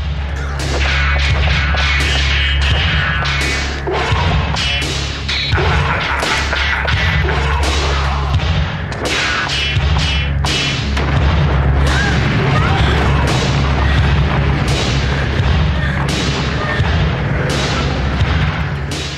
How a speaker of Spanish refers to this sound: en el disco está trufado de efectos de sonido, de las espadas, de la voz de Kurgan y además está hecho también de una forma que queda siempre genial.